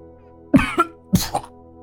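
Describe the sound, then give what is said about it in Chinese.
Two harsh, wet coughing bursts of someone coughing up a mouthful of blood, each with a rough retching edge, come about half a second apart. They are fairly loud against a faint steady background hum, with no talking. “话还没说完，又呕了一口血出来。”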